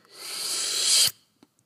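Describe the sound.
A voice imitates caulk being run along the cracks in painted wood panels to seal them: a single sustained, breathy hiss that swells louder for about a second, then cuts off abruptly, followed by a couple of faint clicks.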